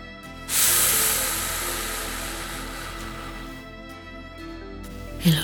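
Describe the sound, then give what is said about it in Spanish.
A long, slow hissing exhale, a person in a breathing exercise releasing a held belly breath, pushed out steadily for several seconds and gradually fading, imitating a deflating balloon. Fairly loud, with no talking. “globo se deshincha”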